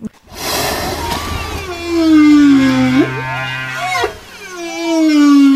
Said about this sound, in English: We drop a hydrophone in and you know, even if the whale's in the distance, we um, let our passengers hear that song going. And quite often you'll hear multiple males singing in the bay, so everyone loves to hear the song.